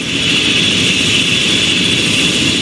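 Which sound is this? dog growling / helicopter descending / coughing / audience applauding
helicopter descending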